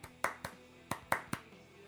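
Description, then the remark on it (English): Two short bursts of sharp hand claps, three quick claps in each with a brief pause between, crisp and moderately loud with no talking over them. “You know, if someone claps, I'll be like.”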